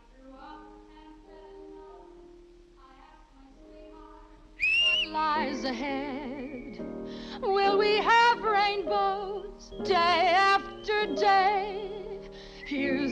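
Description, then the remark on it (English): After a few seconds of soft, low melodic tones, a loud whistled song begins: a wavering, vibrato-laden tune in bright high notes, carried in long phrases with brief pauses between them. “Whistle it as loud as you can.”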